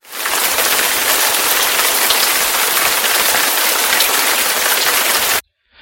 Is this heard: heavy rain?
yes